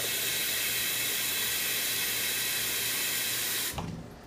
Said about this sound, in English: Um, but to start out, I'm gonna get a pot and fill it with water. Um, just give me a sec. Give me a sec. It's not gonna take that long.